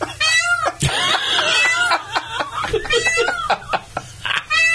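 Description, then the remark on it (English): A peacock's scream rings out in loud, piercing, wailing calls that repeat several times, with bursts of human laughter mixed in between the cries. “it sounds like someone insane that's yelling for help.”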